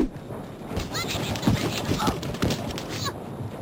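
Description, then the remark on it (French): A rapid volley of comic cartoon-style slaps from a fight in The Sims video game: a flurry of sharp, crisp smacks in an irregular rhythm, fairly loud over a busy, cluttered background, lasting a few seconds. “Ça va être des claques un peu à la, à cartoon, c'est une volée de claques avec un, bruitage un peu amusant.”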